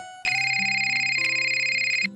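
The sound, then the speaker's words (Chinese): A mobile phone rings with a bright electronic ringtone, a steady high warbling tone over a shifting lower melody, lasting about two seconds before cutting off. No one speaks. “当在看见自己的手机响了的时候，顿时脸色变得十分的难看。”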